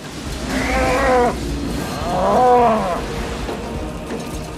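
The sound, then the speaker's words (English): A cow moos twice, two drawn-out, fairly loud calls about a second apart, set against a steady low rumble of background noise with no one talking. “We got cows.”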